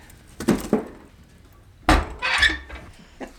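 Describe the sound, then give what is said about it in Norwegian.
A few hard wooden clunks and knocks, then a longer scraping rattle and a metallic clank as firewood is put into a stove to warm a smallholding home in Krødsherad. No one speaks. “Legger i ovnen litt, så blir det litt varmt her.”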